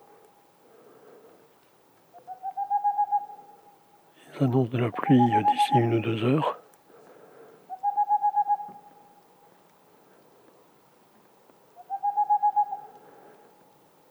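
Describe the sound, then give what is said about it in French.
A Tengmalm's owl sings three evenly spaced bursts of rapid, mellow hoots at night in the mountains, where at least three Tengmalm's owls are singing. Each burst is a quick rising run at a steady mid pitch. A person briefly speaks between the first two bursts. “Et ce soir, dans la montagne, il y a au moins trois Tegmalm boréales qui chantent.”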